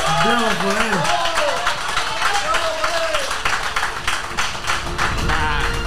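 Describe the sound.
Sustained audience applause, a dense, steady patter of many hands clapping that runs the whole time, mixed with voices whooping and cheering, some rising and falling in pitch.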